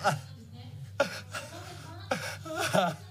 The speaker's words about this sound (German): Ja, so also war, wir hören es hier im Hintergrund, völlig aufgelöst, in Tränen ausgebrochen, konnte sich nur schwer wieder beruhigen.